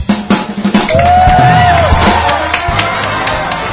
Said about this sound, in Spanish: Para ti este aplauso.